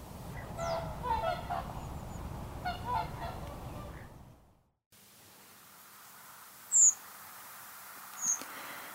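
A flock of overwintering whooper swans on the Lough Neagh shoreline in Northern Ireland calls in overlapping, bugling honks for several seconds, then falls away to a quiet outdoor hush broken by a couple of faint, high chirps.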